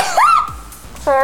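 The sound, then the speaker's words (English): A single voiced sneeze in a radio studio during a live show: a rising, pitched intake that breaks into a short, breathy burst, followed by a brief vocal sound at the end. “And she just snotted all over the studio.”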